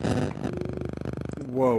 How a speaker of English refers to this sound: That was my phone right beside my microphone. Uh, yeah, get that the hell away from there.